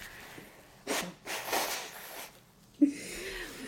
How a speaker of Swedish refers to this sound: Ja, men vi ska inte ens bekräfta det, alltså det är bara förkylning liksom. Jag måste bara på tal om det snyta mig, vänta en sekund.